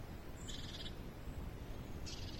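Two brief, high-pitched bird calls ring out outdoors in pleasant, slightly cloudy weather, one early and one near the end, faint against a steady background of outdoor noise with no one talking.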